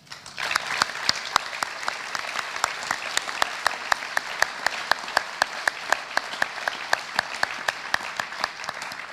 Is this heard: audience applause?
yes